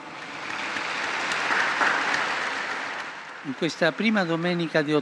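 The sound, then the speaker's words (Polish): A large crowd applauds the newly beatified for about three seconds, a dense wash of clapping that fills the space, before a single man's voice begins speaking as the applause fades. “Oklaski dla nowych błogosławionych.”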